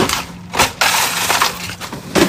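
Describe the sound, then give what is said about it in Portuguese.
Loud crunching and clattering of ice being rummaged through in a home freezer, in several uneven bursts of scraping and clinking with no one speaking. “Vou, ter, vou mexer no gelo.”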